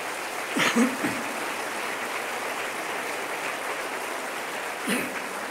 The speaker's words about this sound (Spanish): Dale un aplauso.